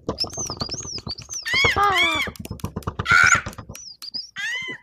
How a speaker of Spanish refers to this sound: A ciegas, resistiendo la implacable ferocidad de estos asesinos y deformes pájaros, Calimán continúa su marcha.